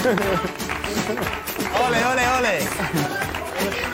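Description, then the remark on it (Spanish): Several people in a studio clap their hands out of sync, completely uncoordinated, the claps ragged and irregular, mixed with voices talking and exclaiming over them. “Malamente tocáis las palmas, ellos. Eh, estáis, estáis descoordinados completamente.”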